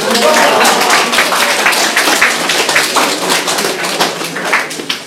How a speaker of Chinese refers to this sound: 哎，掌声！